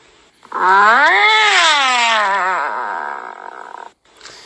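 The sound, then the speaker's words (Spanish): A single long, drawn-out, loud cat meow of dissatisfaction, rising then wavering into a grumbling, complaining tone before trailing off, with no talking. “Okay, then we have the dissatisfied meow.”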